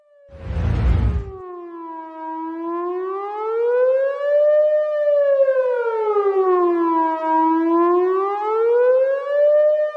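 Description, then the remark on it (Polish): At the start of a song, after a short burst of noise, a loud wailing siren rises and falls in slow, steady sweeps, sounding alone with no voices. “Taka piosenka, gdzie się właśnie zaczyna taką syreną, więc to może dla strażaków przy okazji ich dzisiejszego święta.”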